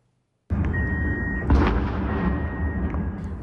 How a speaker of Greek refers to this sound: περισσότερες από 10 εκρήξεις ακούστηκαν σήμερα στο κέντρο του Κιέβου από το νέο κύμα επίθεση με δεκάδε drones που εξαπέλυσαν οι ρωσικέ δυνάμει.